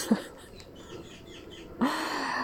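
Magpies calling: a short harsh note near the start, then a louder, rasping chatter that sets in and carries on over quiet outdoor background, with no voices.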